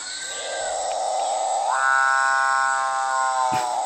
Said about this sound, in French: on a affaire à une coracine chauve, un oiseau